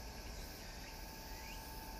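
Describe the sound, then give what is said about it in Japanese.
A steady, unbroken drone of cicadas buzzing outdoors, with no pauses or other sounds, and no one speaking. “セミの声が聞こえてるでしょうこのセミの声がだんだんと一匹一匹死んじゃって小さくなっていくのが切ない季節ですよね”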